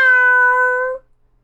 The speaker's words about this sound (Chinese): 威尔伯什么也没说，他的嘴里嗯塞满了奶酪蛋糕。他真是一只幸运的黑猫。喵！